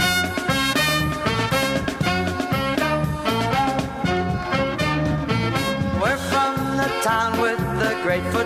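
A lively, older polka song about a football team plays loud, a bouncy oom-pah beat driving steadily under bright, busy band instruments from start to finish, with no one talking over it.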